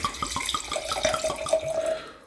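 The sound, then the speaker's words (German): Port wine is poured into the right-hand glass in a steady gurgling stream for about two seconds, its bubbly splashing carrying a faint ringing tone as the glass fills. No one speaks. “Dann geht der mal ins rechte Glas.”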